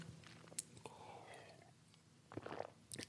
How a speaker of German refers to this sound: Ich brauche mal einen Schluck Wasser.